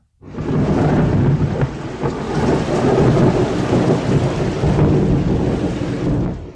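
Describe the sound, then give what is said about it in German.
Heavy rain pours steadily outdoors in foul weather while deep thunder rumbles continuously underneath, loud, with no voices present. “Du erinnerst dich, draußen ist ganz ekelhaftes Wetter.”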